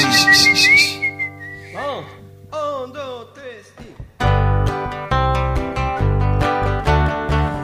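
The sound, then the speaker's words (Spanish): A person whistles a short, bright melodic phrase, gliding between notes, before a full band comes in loudly and carries the tune onward. “en un momento de esta canción voy a silbar.”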